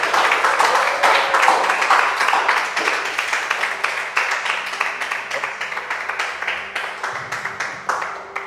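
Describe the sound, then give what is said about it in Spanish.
An audience applauds God at the end of a sermon, steadily for several seconds, a dense wash of many hands clapping at a fairly loud, even level that slowly tapers off toward the end, with no one speaking over it. “Dale un aplauso a Dios.”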